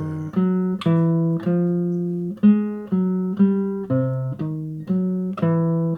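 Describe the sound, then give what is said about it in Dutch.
A 303 clone synthesizer plays a note pattern of about eleven buzzy, bright low notes in a steady rhythm, each one attacking sharply and fading slightly, with a few pitch changes along the way; the last note, an E, acts as a passing note. No talking. “Ik zal hem eens even voor je spelen. Ja. Moet je maar eens even luisteren naar die uh, tussennoot.”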